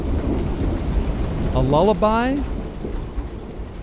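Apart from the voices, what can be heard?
rain falling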